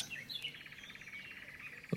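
Birds chirp steadily in a rapid, high trilling series, clear, with a soft background hiss and a brief louder thump at the very end.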